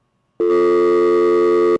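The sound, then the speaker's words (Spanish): A loud, steady telephone busy tone sounds alone for just over a second after a brief silence, after the caller hangs up, a flat electronic buzz that cuts off abruptly. “Ese tenía tuvo una seca, le dio, tal, recuerdo que tiró el teléfono.”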